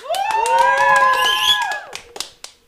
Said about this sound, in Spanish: y pues aquí se van a presentar. Aplausos.